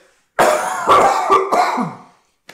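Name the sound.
coughing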